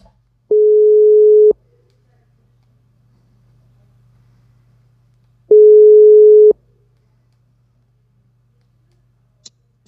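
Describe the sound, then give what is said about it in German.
A phone's ringback tone while a call is being placed from a mobile phone: two steady, mid-pitched one-second tones separated by a long silent pause, over a faint low hum, ending with a small click. “Äh, den werden wir mal anfunken.”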